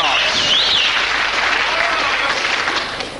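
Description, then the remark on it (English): A big arena crowd of darts fans bursts into loud, sustained applause and cheering, a dense wash of clapping with whistles cutting through, fading slightly toward the end, celebrating a maximum 180 thrown with the first three darts of the second leg. “And then when he finishes the nine dart finish, the crowd just it's just this lovely collective moment of they all know they've seen and witnessed something special”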